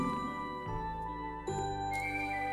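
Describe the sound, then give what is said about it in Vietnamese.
A meditation hall bell rings in rounds announcing to the assembly, with several overlapping strikes, each adding fresh resonant tones over a long, shimmering sustain. It sounds steady, with no voices. “lúc này ba hồi chuông báo chúng đang được vọng lên khoan thai ta có thể vừa theo dõi tiếng chuông vừa chỉnh đốn thế ngồi”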